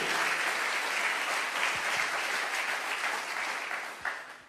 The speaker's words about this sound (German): And everything Jesus will do in this amazing city, give yourself an amazing hand. Und gib mal ein bisschen Applaus für das, was Jesus durch diese Kirche tun wird. Thank you.